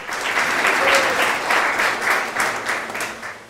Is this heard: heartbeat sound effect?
no